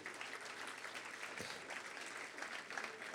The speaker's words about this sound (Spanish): Dale el aplauso al Señor fuerte, Él es nuestro libertador.